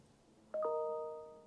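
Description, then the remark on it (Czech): A bright two-note ding chime, the tones struck in quick succession and then ringing out, slowly fading over about a second against a quiet background, with no voices. “Mě to cinklo. To jsem já.”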